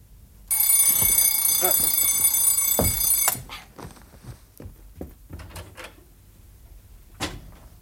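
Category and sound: household object, alarm clock ringing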